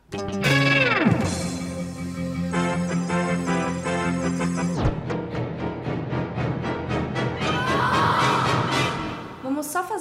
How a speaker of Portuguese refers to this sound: Agora a gente vai de gatilhos. Entra a vinheta.